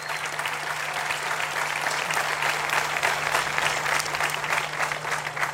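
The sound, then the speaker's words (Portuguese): Sustained applause from a crowd, a dense steady patter of many hands clapping for several seconds at a fairly even loudness, with a faint low hum running underneath. “Este aplauso é muito provavelmente para uma banda qualquer que está cá.”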